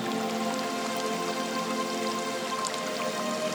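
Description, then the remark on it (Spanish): Steady, continuous rush of flowing water, like a river or small waterfall, with a soft splashing texture that holds an even, moderate level throughout and no voices. “Y en la medida que escuchas mi voz, impregnada con la magia, escuchando el agua, imaginando que estás cerca de un río, de esa cascada, en ese lugar ideal.”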